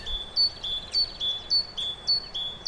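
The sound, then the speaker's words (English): Small birds chirp in a forest in a quick, steady series of bright, high-pitched notes, repeating about twice a second with no voices. “Um, the birds have stolen my food.”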